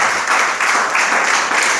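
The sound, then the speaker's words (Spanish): An audience at a church service breaks into steady applause given to the Lord, a dense, continuous wash of many hands clapping at an even loudness, with no voices rising above it. “Llega el Señor el aplauso.”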